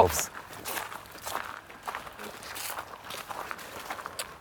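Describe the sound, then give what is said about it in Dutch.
Several people walk together outdoors on a group walk, their footsteps crunching in a steady, overlapping rhythm. Faint voices murmur in the background. “En dan lopen we die kant op”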